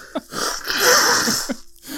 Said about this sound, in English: no, excuse me, blow my nose.